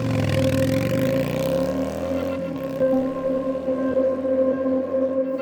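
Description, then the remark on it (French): A motorcycle stopped at a red light beside a van revs its engine loudly twice, its pitch sweeping up and down, then settles into a steady, sustained roar as the bike speeds off when the light turns green. “Le motard fait vrombir le moteur à deux reprises, puis démarre sur les chapeaux de roue dès que le feu passe au vert.”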